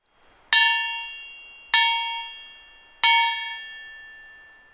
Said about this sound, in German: hängt an einer Kette so ein vielleicht 50 Meter langes Stück Eisenbahnschiene dran und so ein stählerner Klöppel, mit dem man gegen diese Eisenbahnschienen schlagen kann. Ich habe euch das mal mitgebracht. Es hört sich ungefähr so an.